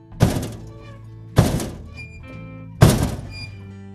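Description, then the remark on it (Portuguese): Three dull, soft knocks spaced evenly about a second and a half apart, each with a short resonant decay, heard alone without any talking. “Eles escutam essas três batidinhas à noite.”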